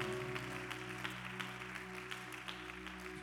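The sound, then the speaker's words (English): An audience at a church service applauds a woman after her testimony, a dense wash of clapping held at an even level throughout, with a sustained low keyboard chord humming underneath. “Give her a great big hand.”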